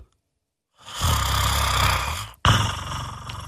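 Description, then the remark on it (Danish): A person imitates a small house cat's purr with a low, rattling, snore-like rumble, sustained on one breath, a brief pause, then a second stretch, fairly loud. “Men den lille bitte husmis, ja. den kan faktisk både spænde når den ånder ind, og når den ånder ud.”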